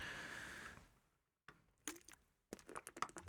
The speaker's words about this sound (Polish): To woda. To woda, przepraszam, muszę się napić. E, bo mi zaschło.